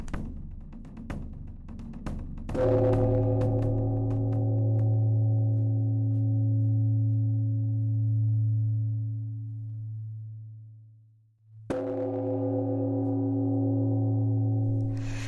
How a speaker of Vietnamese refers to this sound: Tiếp sau tiếng trống đành khỏe là tiếng chuông hào sảng, vang xa như bao trùm cả quả núi ô te. Tiếng chuông dường như là lời của Đức Phật vang vọng khắp thế gian, xua tan đi tăm tối, kêu gọi chúng sinh sớm thức tỉnh và giác ngộ.